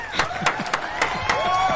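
Scattered applause for a journalist on International Journalist's Day, with a handful of sharp, irregular claps rising over a steady murmur of voices and cheering in the background.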